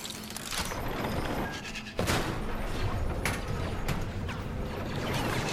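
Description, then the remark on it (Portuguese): A landed spaceship's doors open at the spaceport of the city of Aigon, capital of the planet Kine, with a steady mechanical grinding and whirring, broken by a sudden loud burst partway through, then sustained hissing and clanking textures with no voices. “E assim que as portas se abrem, são recepcionados por droidecas.”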